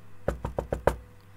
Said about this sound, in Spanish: Los dos cerditos corrieron rápidamente a la casa de su hermano mayor y entraron justo a tiempo para que el lobo llamara a la puerta.